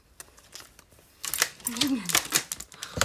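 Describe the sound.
A dog crunches a peanut butter biscuit, with a burst of sharp, irregular crackling chews that grows denser after a quiet start. A brief voiced murmur sounds partway through.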